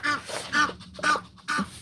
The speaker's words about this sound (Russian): извините, утки